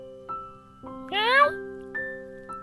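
A single drawn-out cat meow rises sharply and then holds, set against soft sustained chime-like tones that ring in and out before and after it.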